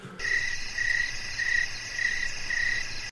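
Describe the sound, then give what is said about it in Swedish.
Crickets chirp steadily in a continuous high-pitched trill, pulsing in regular bursts about twice per second, fairly loud with no voices present. “Syrsor.”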